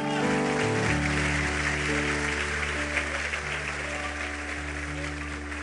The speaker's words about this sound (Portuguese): Aplauda Ele também aí.